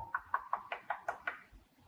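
A quick run of seven sharp knocks on a door, evenly spaced, with no voices, followed by a brief quiet moment.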